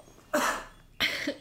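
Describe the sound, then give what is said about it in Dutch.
Two sneezes in quick succession, each a sudden, loud, breathy burst with a hissing spray, separated by a brief pause, with no talking. “Gezondheid.”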